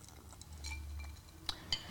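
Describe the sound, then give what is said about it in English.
Two bright glass clinks ring out close together near the end, a quick toast of glasses tapping to welcome a first-time guest, with a faint low hum underneath and no talking. “Well, let's do it the proper way. Cheers.”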